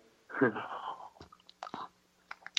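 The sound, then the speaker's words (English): A soft slurping sip of hot tea, followed by a few small wet mouth clicks and a quiet swallow, with no one talking. “Anyway, as I take a sip of my tea”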